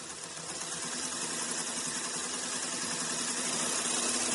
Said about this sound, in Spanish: Yo creo que es una Singer, una, una máquina de, de coser, Singer.